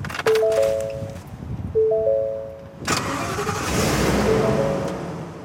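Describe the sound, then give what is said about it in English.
A police truck engine, the Burlington Police Department's Emergency Response Vehicle, cranks with a whining starter twice, then catches and settles into a loud, steady rumble, with no voices. “The department spent about a quarter million dollars to buy and outfit this truck. They call it the Emergency Response Vehicle.”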